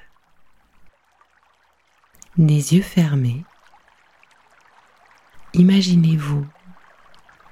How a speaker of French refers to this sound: Vous êtes assis au milieu du ruisseau, l'eau jusqu'au nombril. L'eau est douce, fraîche. Elle vous caresse